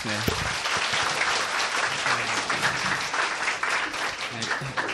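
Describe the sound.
A crowd applauds steadily, a dense wash of clapping that holds its level for the full five seconds, with faint voices murmuring underneath.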